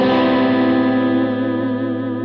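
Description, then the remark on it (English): A single electric guitar chord, played through a Siren Anvil compressor pedal, is struck and rings out loud, its sustain held unusually even and full as it slowly fades, with a slightly driven, effected tone and no talking. “Uh, Right now, I'm just using this compressor here. It's called a um, a siren anvil compressor.”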